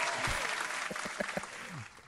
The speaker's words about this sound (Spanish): pero déjame ponerle algo aquí. Un, un, aplauso, un aplauso, un aplauso para la primera llamada. Un aplauso para la primera llamada.